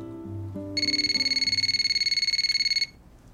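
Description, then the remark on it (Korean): An electronic phone ring for an incoming call trills steadily for about two seconds, a rapid warbling pulse of bright, high tones over faint low background music that continues quietly once the ringing stops. “그렇게 저 혼자 가슴앓이를 하던 어느 날 그에게서 갑자기 전화가 온 겁니다.”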